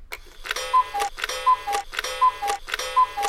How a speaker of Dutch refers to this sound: Ja, en je hebt de koekoekslok meegenomen, hoor ik.